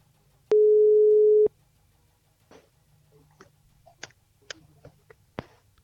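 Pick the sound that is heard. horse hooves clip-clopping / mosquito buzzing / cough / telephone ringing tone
telephone ringing tone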